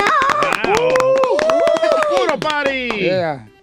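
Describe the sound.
Rapid, steady clapping from a small group runs through the whole moment, lively, mixed with loud drawn-out exclamations and cheering voices before fading at the end.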